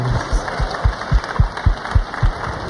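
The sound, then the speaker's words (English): A short burst of audience applause, a steady wash of clapping with distinct thumping claps landing in a loose, uneven rhythm, moderately loud and with no talking over it. “Round of applause for this fun.”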